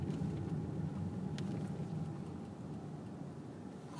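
A steady, dense low rumble of road traffic in a heavy traffic jam, like many vehicles crawling or idling, with a continuous wash of engine and tire noise and no voices.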